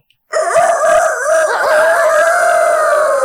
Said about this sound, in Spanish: ¡El gallo! Es el gallo, señoras y señores.